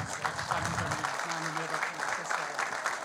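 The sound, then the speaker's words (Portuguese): Sustained audience applause for Brazilian footballer Mauro Silva, honoured for Brazil's championship win: a dense crackle of many hands clapping at steady volume for about three seconds, with a low voice briefly murmuring underneath. “Uma salva de palmas para o nosso Mauro.”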